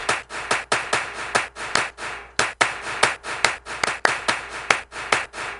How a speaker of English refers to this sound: We would put more echo on those claps. Yeah, it's like Lou Gehrig's giving his speech all over again with those echoes.